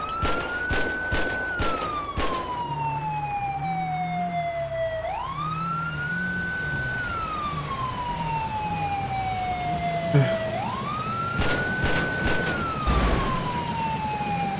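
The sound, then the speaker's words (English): Bursts of rapid gunfire crack out in quick clusters as shots are fired at a car's smoking engine, first at the start and again near the end, while a police siren wails up and down steadily underneath. “Man, how long does it take to shoot this guy's engine?”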